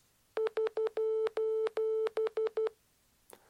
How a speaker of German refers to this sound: Ja, dass das ein Morsecode ist, das, das ist mir auch klar gewesen. Aber ich habe gedacht, hinter diesem SOS steht auch eine Bedeutung.